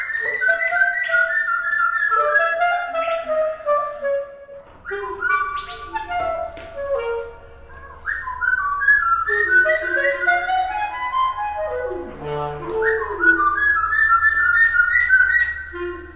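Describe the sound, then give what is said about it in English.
A clarinet plays sliding, sustained phrases while a small bird with brown feathers and a dark beak whistles and chirps in call and response with the clarinetist throughout, both fairly loud, with no talking. “This bird and this clarinetist are doing something together.”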